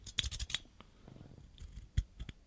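Small plastic clicks and scrapes as a handheld ear-piercing device for earrings is handled, with a sharper snap near the end amid quiet fiddling noises.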